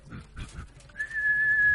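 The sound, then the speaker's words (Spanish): A person whistles one steady, sustained high note lasting almost a second, preceded by a few soft breathy puffs and murmurs; clear, with no speech over it. “y empieza a silbar y la oveja le dice, ay, me salió.”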